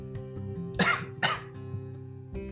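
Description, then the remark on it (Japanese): Two harsh coughs in quick succession from a person still coughing after COVID, each a short explosive burst, over a steady low background hum with no talking. “まだちょっとね、コロナの、あの、まあ、咳がね、まだ出るんですけど、はい、少しずつ良くなってきてはいると思います。”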